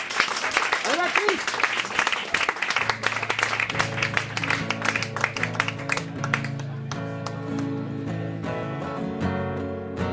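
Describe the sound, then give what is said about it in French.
An audience applauds to welcome a live music performer for the evening, with dense, steady clapping throughout. A voice speaks briefly at the start, and soft instrumental notes begin under the applause partway through. “Avec vos applaudissements.”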